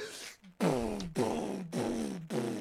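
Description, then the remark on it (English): A voice mimics booming bass from a car stereo: four loud, buzzy, low vocal thumps in steady rhythm, each one sliding down in pitch like an 808 drop. “We walk out and this motherfucker's car is going”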